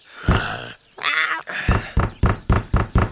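knocking on a door

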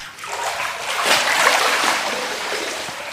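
water splashing

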